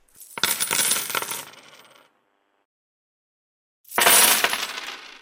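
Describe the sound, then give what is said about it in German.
Two bursts of coins clattering and jingling onto a table, the first lasting nearly two seconds and trailing off, then a pause before a second bright cascade. No voices. “Es wären Münzen, die auf den Tisch fallen.”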